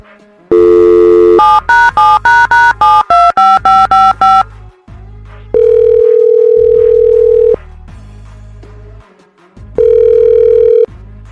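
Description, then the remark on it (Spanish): A steady telephone dial tone gives way to a quick run of about nine beeping keypad tones as a number is dialed, then two long ringback tones with pauses between, loud with no voices. “Vamos a marcarle.”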